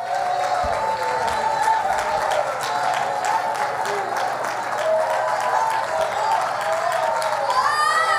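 audience clapping and shouting

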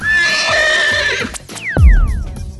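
horse neighing

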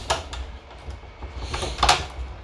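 door being closed

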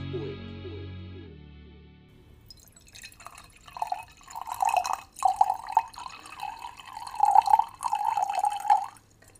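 dripping water

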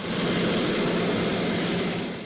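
fighter jet engine roar

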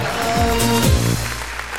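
applause

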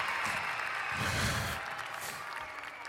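studio audience applause

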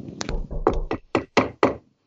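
knocking on wood

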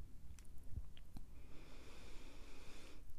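deep breathing

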